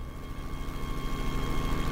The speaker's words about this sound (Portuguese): O Manolo veio buscá-la de helicóptero.